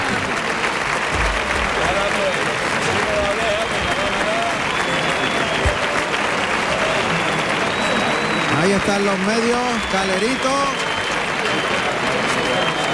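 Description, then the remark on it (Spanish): A large crowd at a bullfight applauds loudly and steadily in a thick, unbroken ovation for the bullfighter after he has killed the bull with the sword, lasting the whole stretch, with a man speaking over the clapping. “Está recogiendo una fuerte ovación.”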